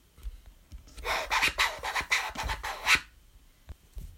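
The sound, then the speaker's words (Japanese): A voice imitates record scratching in voice-percussion (beatbox) style: a quick run of about eight raspy, rhythmic strokes over two seconds, fairly loud, with soft clicks and breaths before and after. “またはボイスパーカッションのスクラッチ”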